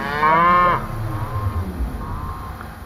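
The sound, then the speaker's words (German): In a farmer's video recording, made about 20 years ago, of his cattle dying, a cow lets out a loud, drawn-out moo with a rich harmonic tone, followed by fainter, lower lowing and some rumbling background noise, with no one speaking. “Und der filmt damals vor gut 20 ah, Jahren, wie seine Kühe sterben.”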